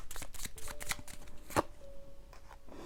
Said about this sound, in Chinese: 来，那继续让我抽牌吼。